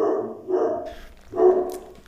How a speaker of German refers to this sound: Im zweiten Satz, jetzt, jetzt bellt unser Hund weil es geklingelt hat.